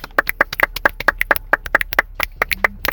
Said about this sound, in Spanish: Un aplauso.